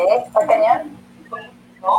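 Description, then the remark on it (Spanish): Thin, tinny voices echo back through a phone speaker in a few short bursts, with a faint steady hum running underneath, from a livestream transmission playing on a phone with its volume turned up. “a ver, ¿quién le, quién, quién, le, quién le subió volumen a su teléfono que la transmisión?”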